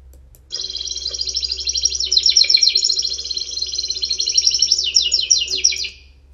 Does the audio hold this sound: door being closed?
no